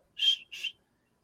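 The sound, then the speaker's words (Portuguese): Two short, breathy whistle blasts, a longer one then a shorter one, mimicking by mouth a referee's whistle for a football kick-off, clear, with no talking over them. “Tem que botar a bola lá no centro, o juiz apitar”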